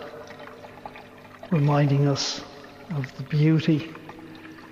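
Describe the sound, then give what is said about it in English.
A soft, steady trickle of running water murmurs in the background at Mount St. Alphonsus while a person speaks clearly over it in the foreground. “You might hear the gentle trickle of water in the background,”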